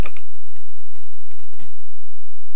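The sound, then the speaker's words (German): Quick, irregular clicks of someone typing a command to climb the drawbridge on a computer keyboard, fairly crisp, with a few heavier keystrokes mixed in and no talking. “Wenn ich es schaffe, das zu tippen.”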